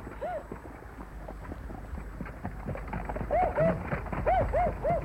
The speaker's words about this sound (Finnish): Nyt kuuluu rattaat ja musti haukkuu jo kaukana.